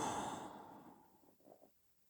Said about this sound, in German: Genau, da kommt nochmal so ein tieferes Atmen.